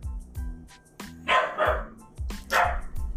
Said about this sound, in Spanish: ¡Perro!